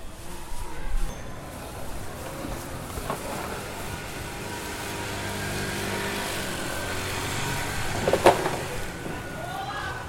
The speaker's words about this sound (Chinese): 你有没有听到遥远的地方呢？有垃圾车的声音远远的传来。